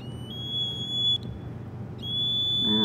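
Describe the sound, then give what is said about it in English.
A shrill, steady, high-pitched electronic buzz from a piezo buzzer plugged into conductive play dough in a kids' electronics kit drones loudly. It briefly cuts out around the middle before resuming, with a faint low rumble underneath. “They also have a buzzer, which I'm gonna plug in. It's gonna be really annoying.”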